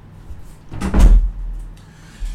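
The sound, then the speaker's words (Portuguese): An office door swings shut with a single solid thud, preceded by a brief creak and handle rattle, then a low rumbling settle. “É, deixa eu fechar aqui a porta.”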